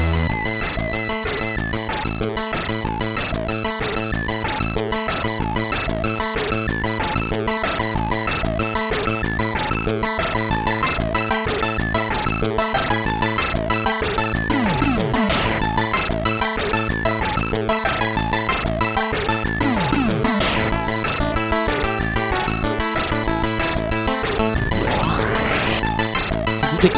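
Epic, dramatic 8-bit music from the Commodore 128 version of the game The Last V8 plays loud and unbroken, with a fast pulsing bass line, buzzy square-wave melody and quick rising pitch sweeps near the end. No one speaks.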